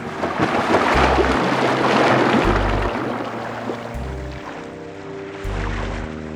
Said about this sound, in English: The bottle broke and the herring hit the water.